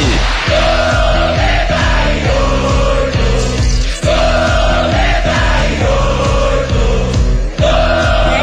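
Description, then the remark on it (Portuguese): A loud crowd of football supporters of the radio station 98 FM chants and cheers in unison, their sung voices rising and falling in a steady repeating rhythm that carries on throughout. “A torcida da 98 tá passando aqui pela nossa programação.”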